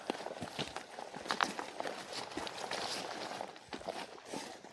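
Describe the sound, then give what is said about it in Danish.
Steady footsteps crunch as several people walk up an old sunken dirt lane at an unhurried pace, moderately loud, with faint outdoor ambience and no talking. “Altså det, vi går op af nu, det er sådan en gammel hulvej.”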